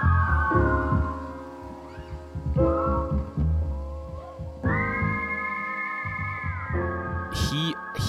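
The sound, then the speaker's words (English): A high, steady whistled melody glides over a mellow music backing with bass and percussion, holding long notes that bend and slide, loud and upfront throughout. “uses whistles like yeah, no one I've ever heard hmm.”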